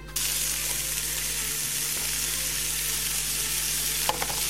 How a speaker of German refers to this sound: Und während das Fleisch vor sich hin brutzelt, könnt ihr schon mal die Pita aufwärmen.